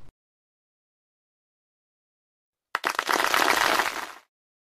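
After a long silence, an audience at a show under a circus big top breaks into a short, dense burst of applause for the acrobatic company's artists at the close of the show, many hands clapping together for about a second and a half before it quickly stops.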